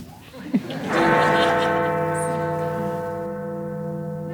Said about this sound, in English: so if the sound is working, I think we have some big Ben